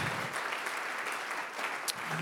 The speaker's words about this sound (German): Komm, lass uns diesen Leuten mal einen Applaus geben, einen mächtigen Applaus.